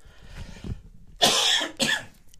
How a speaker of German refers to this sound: Ich muss mal kurz husten. Gerne.